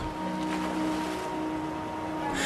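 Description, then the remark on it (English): A boat moves steadily through the water, with a constant low hum and a broad wash of churning waves and spray, fairly loud, without any voices. “They left Babel by foot, by cart, and by boat.”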